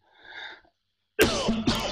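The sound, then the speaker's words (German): A soft intake of breath, a brief pause, then two loud, harsh coughs in quick succession from a lingering cough, with no talking. “Oh, tut mir leid, mein Husten, das, ich hoffe, das knallt Ihnen jemand die Ohren, aber der ist leider immer noch nicht ganz weg.”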